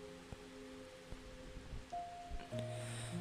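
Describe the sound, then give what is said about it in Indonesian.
Strong, steady rushing wind sweeps through forest trees on a mountain slope at night, a continuous airy hiss with slight surges, accompanied by low sustained droning tones beneath it. “keheningan hutan ini membawa angin yang berembus dengan kencang”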